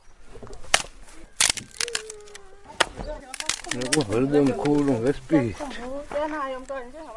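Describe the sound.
Several sharp, dry cracks as men snap wooden twigs into pieces to make a fire, scattered irregularly, followed by a person's voice talking over a few further snaps.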